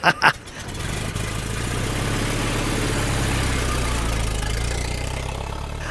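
A car engine starts with a couple of sharp clunks, then settles into a steady low rumble that keeps running as the car pulls away, fairly loud.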